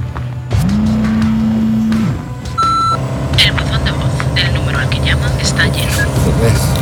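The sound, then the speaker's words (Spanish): A long, low car horn blares over busy traffic noise as a vehicle swerves to avoid a car, then a short high beep sounds before engines and road rumble carry on loudly. “Esquiva un coche.”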